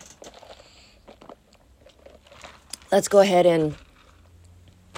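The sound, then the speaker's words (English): Soft, irregular creaks and crackles from a futon shifting under someone's weight at home on a cold, rainy, overcast day, fairly quiet, mixed in with a person speaking. “I'm at home, as you can hear the futon creaking around, because right now it's overcast.”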